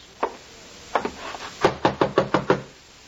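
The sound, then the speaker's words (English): A police representative knocks on the door of a guest's chambers at an inn: a single knock, then a couple of raps, then a steady run of five firm, evenly spaced knocks, with no voices. “Who is it? Open the door.”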